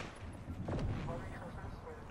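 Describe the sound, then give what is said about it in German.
A video game rocket launcher fires once, a loud booming blast with a rumbling low tail, set against dense, noisy game background sound. “Schieß dort hin mit dem Rocket Launcher, Digga.”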